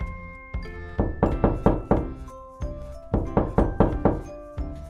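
Repeated firm knocks on a wooden door, coming in quick groups of three to five raps separated by short pauses, close and clear with no voices.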